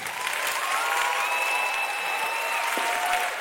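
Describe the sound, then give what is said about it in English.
An audience claps steadily as a clap offering to Jesus for several seconds, a dense, even wash of many hands with a few faint whistles or cheers riding over it and no speech. “Go on, give him a clap offering.”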